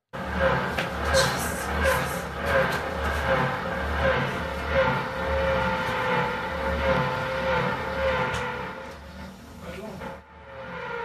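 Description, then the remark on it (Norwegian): Loud, steady drilling from a neighbour's renovation on a Sunday: a continuous mechanical whine with a rhythmic low pulsing underneath, running for about ten seconds before cutting off briefly near the end. “Boring. Det er lyden av boring.”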